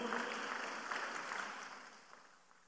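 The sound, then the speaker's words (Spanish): A crowd claps together in applause for Christ, a dense, steady patter of many hands, starting loud and gradually thinning and fading over a few seconds. No one speaks. “Denle el aplauso a Cristo, por favor.”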